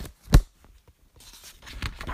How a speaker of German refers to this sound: Oh, sorry, das war, glaube ich, ein bisschen laut. ähm, also das Klatschen gerade